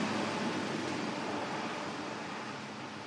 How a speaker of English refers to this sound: So most of the noise that you hear is air conditioning fans. There's a cool system where they blow cold air in down every other aisle and they suck the warmed air up on the intermediate aisles.